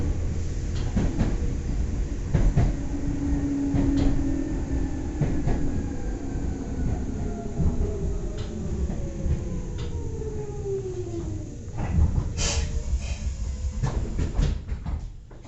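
A Nagoya Railroad (Meitetsu) Toyota Line train running from Sanage toward Umetsubo and Akaike, Japan, clatters steadily along the rails, with a dense low rumble, repeated clicks from the wheels over joints, and faint sliding whines rising and falling in pitch.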